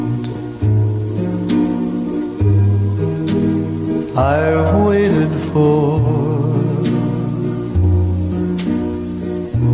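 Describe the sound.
A crooner sings a slow, romantic ballad with sustained, vibrato-laden notes over lush, steady orchestral backing, full throughout.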